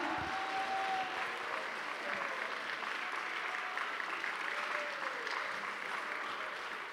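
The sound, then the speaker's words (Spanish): An audience claps hands in worship of the Lord, a steady, dense wash of applause that holds evenly for several seconds, with faint cheering voices mixed in beneath the clapping. “¿Cuántos pueden adorar al Señor con palmas?”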